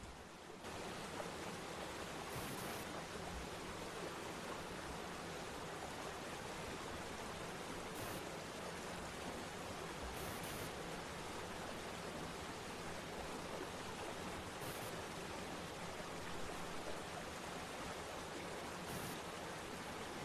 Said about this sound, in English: As you continue along this path, the, the sound of the water gets louder